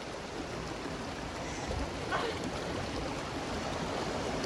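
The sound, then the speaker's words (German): A steady, full roar of rushing water from a waterfall and stream, a dense continuous wash of sound with no pauses and no voices. “So, dann waren wir beim Wasserfall.”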